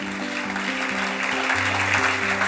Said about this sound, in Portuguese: Se você crê, aplauda ao Senhor bem forte.